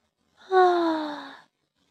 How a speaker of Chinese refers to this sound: 小小熊打了个哈欠，然后钻进被窝，躺在了大大熊身边。